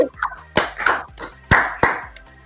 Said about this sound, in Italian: facciamo un applauso, tanti auguri John. Auguri!